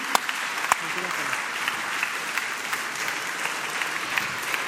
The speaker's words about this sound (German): Ja, einen Applaus bitte.